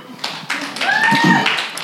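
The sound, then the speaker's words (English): An audience breaks into hand clapping for the Lord that builds from a few scattered claps into steady, dense applause, with voices calling out and a brief high whoop riding over it. “How about a hand clap for the Lord before we get started?”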